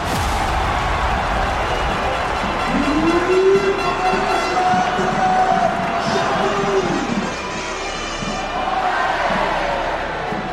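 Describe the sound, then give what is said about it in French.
A stadium crowd at Stade Gaston Petit roars in celebration after Châteauroux's 37th-minute equalizing goal against Paris in the Coupe de France, scored by Thio from a Nolan Roux pass; a loud, dense, unbroken wall of cheering with voices rising in a long sung or shouted swell midway through, easing slightly toward the end. “Le stade Gaston Petit explose de joie. Les cris et les chants résonnent dans tout le stade joueurs célèbrent ensemble ce but qui redonne espoir.”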